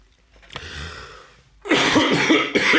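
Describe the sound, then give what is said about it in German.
Congested coughing from a person with a cold: a soft raspy breath first, then a loud burst of several harsh, rough coughs in quick succession, with no talking. “ich bin verkühlt.”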